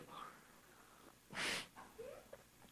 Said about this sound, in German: Seid ihr noch da? Ja, ich höre euch atmen.